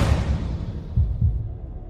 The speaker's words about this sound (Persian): از هیجان و استرس تپش قلب گرفتم